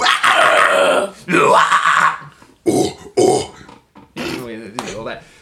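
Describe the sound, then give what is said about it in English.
A voice produces a series of harsh, gravelly growls in several bursts with short pauses, loud, resembling a guttural death metal growl or grunt. “Featuring …”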